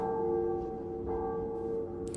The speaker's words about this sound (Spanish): Creo que asistían a misa, pues a los minutos de abandonar la casa replicaron las campanas de aquella pequeña iglesia.